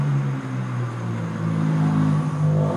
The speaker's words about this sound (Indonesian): aduh banyak banget motor lewat lagi gue nggak tahu kedengeran apa enggak